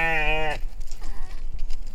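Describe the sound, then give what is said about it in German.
A single loud, wavering bleat from a sheep or goat, lasting about half a second, followed by low rustling and scuffling farmyard noise. “Frohes Fest euch Ziegen, Schafe, Mähmäs oder was auch immer ihr seid.”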